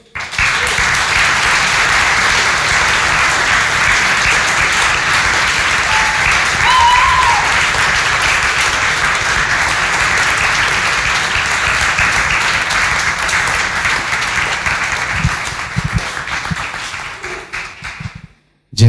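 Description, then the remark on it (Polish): Sustained audience applause for the show's guest, a dense wash of many hands clapping at steady loudness for most of the stretch, with a few faint cheers inside it, before it tapers off and stops abruptly. “I powstrzymajmy się od przypadkowych dźwięków, chyba że są to śmiechy lub oklaski dla naszego gościa.”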